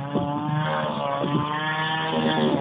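tool, chainsaw running

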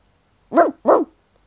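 animal, dog barking

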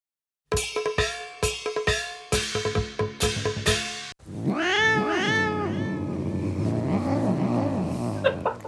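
animal, cat meowing

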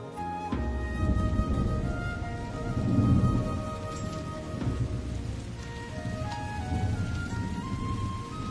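nature, rain with thunder

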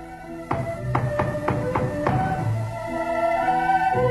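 household object, knocking on a door

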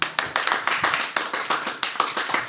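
crowd, applause

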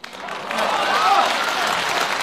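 crowd, audience applause

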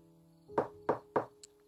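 impact, knocking on a door

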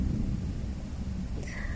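nature, thunder

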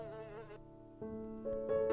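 tool, electric hair clipper buzzing

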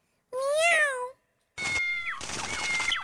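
animal, cat meowing

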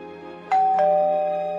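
household object, doorbell ringing

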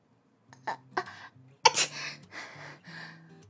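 human body sound, sneeze

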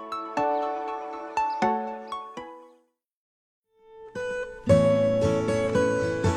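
signal or alarm, doorbell ringing

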